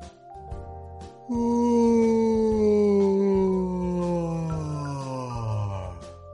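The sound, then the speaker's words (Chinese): A voice imitates Mr. Bear's last long yawn before he hibernates as snow falls: after a short soft start, a loud, drawn-out groaning tone slides slowly downward in pitch for several seconds, then fades. “熊先生打了最后一个长长的哈欠。”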